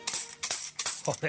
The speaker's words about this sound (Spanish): Vale, eh, lo intentamos con la pandereta, ¿vale? La pandereta suena así, es una pandereta además que no sé yo, que es rarísima.